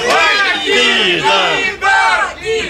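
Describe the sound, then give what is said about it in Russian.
An audience at a live recording shouts together in unison, a loud, sustained chorus of raised voices that surges in three or four waves, each swelling and falling with a brief dip between them. “Крикните, вы же знаете.”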